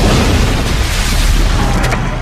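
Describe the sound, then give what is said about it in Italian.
A loud, deep explosion boom in Washington rolls on as a continuous rumbling roar, heavy in the low end and filling the whole stretch without fading, with no voices present. “La situazione è in pieno sviluppo, c'è appena stata un'esplosione...”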